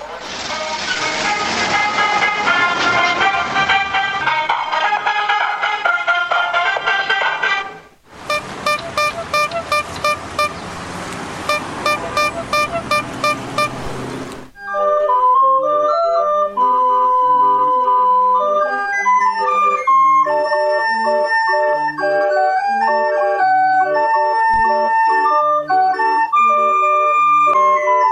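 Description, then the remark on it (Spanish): A collage of Mexican street vendor sounds, such as the ice cream seller, the mailman, the taco seller and balloon sellers: a loud, sustained whistling tone, then a harsher buzzing blast, then a tinkling ice-cream-cart jingle playing a repeating melody, all loud, with no talking. “también las campanas de la iglesia, el sonido de los helados, el cartero, quien vende tacos, los globeros. Entonces vamos a escuchar varios de estos sonidos en este collage de sonidos”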